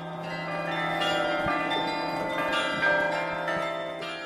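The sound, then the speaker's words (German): A man-sized iron bell rings with a deep, sustained tone out over a snowy landscape, its rich overtones humming and slowly decaying, steady and fairly loud with no voices. “Und eine mannshohe Eisenglocke schickt ihren tiefen Ton in die verschneite Landschaft.”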